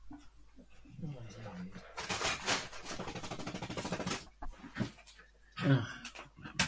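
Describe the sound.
Two dogs scuffle and pant as they squabble with each other, with a stretch of dense, rough rustling and scrabbling in the middle and quick breathy panting throughout; a voice speaks briefly near the start and end.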